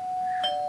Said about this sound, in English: Well, that was the doorbell, which means pizza from the dead is here, so uh, we have to actually wrap it up.